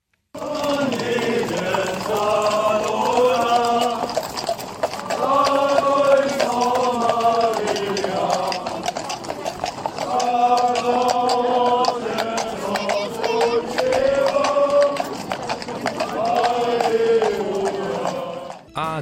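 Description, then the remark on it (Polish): An Easter riders' procession of 102 riders from Nebelschütz singing a slow hymn together on horseback, voices steady and full, with horse hooves clip-clopping faintly beneath the singing throughout. “A takle nebelczancy krzyżorjów spiewachu.”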